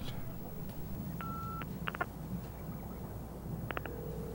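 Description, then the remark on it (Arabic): A few short electronic telephone dialing tones beep at irregular intervals while calling a mobile phone that is out of service, followed by a longer steady tone, all over a constant low rumbling background noise with no talking. “يا أستاذ بقالي ساعة بكلمك بحاول أتصل عليك وموبايلك مش شغال”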